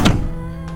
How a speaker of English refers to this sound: Go, get inside. I'll close the door.